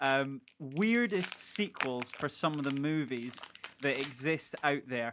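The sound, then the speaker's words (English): A Milky Bar chocolate bar wrapper crinkles and rustles in short bursts as someone opens a snack, continuing underneath a man talking steadily throughout. “I'm gonna have a snack. What have you got? Is that Milky Bar?”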